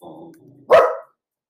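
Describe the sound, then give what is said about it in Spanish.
Dogs barking: a low, rumbling growl leads into a single loud, sharp bark that quickly fades, with no one talking. “y los perros van a empezar a ladrar ahora.”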